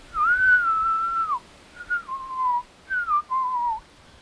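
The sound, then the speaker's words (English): Someone hums and then whistles through their nose, a noise made to navigate when out in the dark: a thin, steady tone in three short phrases, the first long and gliding, the others dipping downward, with no talking. “I hum and then whistle down my nose.”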